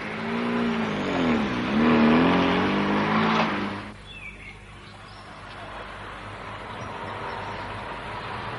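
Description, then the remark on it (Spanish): A car engine revs hard as the vehicle pulls away and accelerates, its pitch rising and dipping for a few seconds before settling into a quieter, steady driving rumble. “¡Usted conduzca!”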